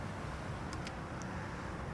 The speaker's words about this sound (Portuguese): O trânsito uh, já está com uh, algum movimento, estamos já numa hora uh, em que as pessoas começam a ir para o, o trabalho, daí estar já algum movimento neste, neste momento aqui junto ao edifício 2000.